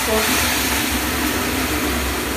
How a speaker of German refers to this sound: das kommt vom Aufguss auf die heißen Steine wird da aufgegossen Das ergibt dann auch eine schöne Wärme.